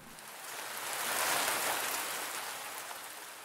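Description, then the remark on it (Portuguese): Steady rain falls in a soft, continuous hiss, swelling slightly in the middle before easing back, with no voices or other sounds. “Tão calma é a chuva que se solta no ar, nem parece de nuvens, que parece que não é chuva, mas um sussurrar, que de si mesmo, ao sussurrar, se esquece.”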